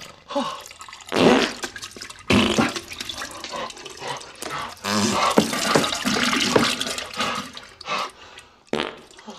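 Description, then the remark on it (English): Loud, wet, sputtering fart noises burst out in a rapid series in a film scene: splattery explosive diarrhea sounds from a man with diarrhea exploding a toilet, with watery gurgling between the blasts. Harsh, with no talking. “He gets crazy diarrhea.”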